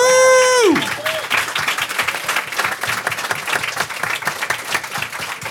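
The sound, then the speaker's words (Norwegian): An audience at Workbook applauds itself, breaking into steady, dense applause that carries on for several seconds, preceded by a brief bright tonal sweep that slides downward and fades as the clapping takes over. “Applaus for dere sjæl.”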